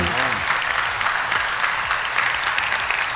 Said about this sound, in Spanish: Se pararon y empezaron a aplaudir. Bueno, eso fue eh, cuando anuncian la votación.